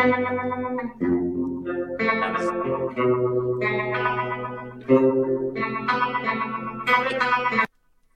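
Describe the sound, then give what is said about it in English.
Electric guitar played through an effects pedal with a bass cut control, ringing out a sequence of sustained, thick chords with a chorus-like, slightly distorted tone, changing roughly every second before stopping abruptly. “So it's I really like having that bass cut control, and I'll probably add it, like I was saying, a little slider switch on uh, future models.”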